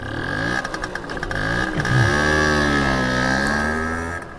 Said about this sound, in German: Das ist wohl die Marke des Rollers. Ähm, und sie bindet dich mit einem, mit einem ja, Expander-Gummiseil ähm, hinten an den Roller dran und fährt sehr, sehr langsam und vorsichtig los.